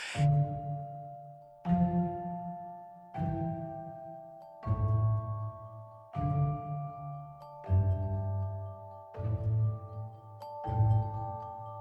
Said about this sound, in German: dieses verhalten gespielte Klavier mit dem Glockenspiel dann im Hintergrund und diesen sanften Pizzicato-Streichern. Also es war schon sehr, sehr brillant.